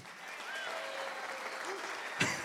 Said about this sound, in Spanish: Ese aplauso estuvo así bien raro, ¿verdad?